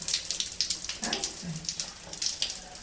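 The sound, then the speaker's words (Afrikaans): Shower water sprays on a parrot in a steady hiss, splattering in uneven bursts as it hits the bird, with a couple of faint low tonal sounds briefly underneath and no talking. “Carolus, ek hoor jy van stort. Kom, gaan ons stort.”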